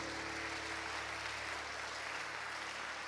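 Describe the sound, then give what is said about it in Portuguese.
An audience claps together at night to applaud and glorify the Lord, a steady, dense wash of applause that holds evenly for a few seconds, with no voices over it. “Quantos estão comigo aqui nessa noite para aplaudir e glorificar o Senhor?”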